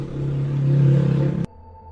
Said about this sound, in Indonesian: Oh iya, aku minta maaf ya guys. Tadi ada suara motor yang masuk kenceng banget dan mungkin ada suara klakson motor atau apa yang lewat gitu.